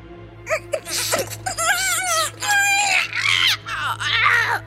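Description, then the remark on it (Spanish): A voice shrieks in a series of shrill, wavering, loud squeals and wails, voicing Lady Ratilda, a mouse queen, squealing as she writhes on the floor, with a low steady hum beneath. “El relojero y el astrónomo miraban con horror mientras que Lady Ratilda se retorcía en el suelo chillando.”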